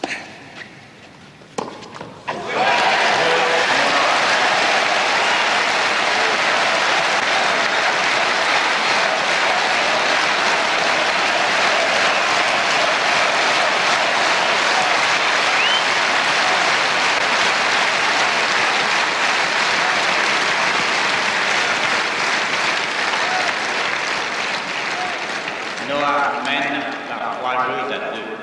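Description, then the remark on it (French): A huge stadium crowd erupts in sustained cheering and applause acclaiming one man, a dense, loud roar resonating everywhere for nearly half a minute before easing slightly, with a voice briefly heard at the end. “Il est acclamé, il, il y a un bruit, mais absolument dingue, ça résonne de partout.”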